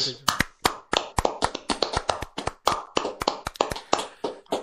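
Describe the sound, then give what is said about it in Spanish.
Brief applause from a few people: roughly a dozen and a half sharp, loud handclaps in a quick, slightly uneven rhythm, with voices murmuring underneath. “Un aplauso, un, aplauso final.”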